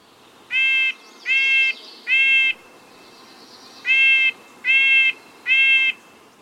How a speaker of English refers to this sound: And hurry, because here come the jays. They love suet too.